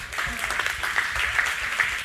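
Steady applause from an audience welcoming a man about to give his testimony, a dense, even patter of many hands clapping at moderate loudness throughout the whole stretch, with no pauses.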